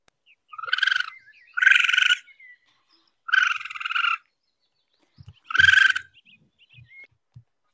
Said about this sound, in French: Raton laveur. Oui, Philippine, c'est un raton laveur. Voilà. J'avais vu euh, passer euh, des gens qui disaient que ça sonnait un peu comme, euh, comme une machine à barbe à papa.